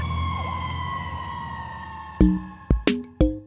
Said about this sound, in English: So while a fire truck might look red, the siren noise it makes might seem so green that the person thinks of fire trucks as being more green than red.